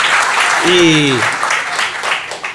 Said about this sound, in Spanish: ¿Qué aplaude, señora? Espere un poquito que estamos La gente aplaude cualquier cosa.